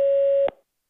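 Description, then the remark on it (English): A single steady electronic beep, mid-pitched and loud, holds for about half a second, then cuts off with a short click and leaves silence: a voicemail prompt tone signaling recording has begun. “Record after the tone.”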